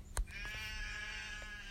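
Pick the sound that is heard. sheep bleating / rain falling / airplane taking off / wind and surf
sheep bleating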